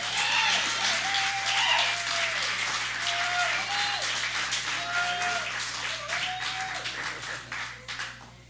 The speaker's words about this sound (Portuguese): Uma salva de palmas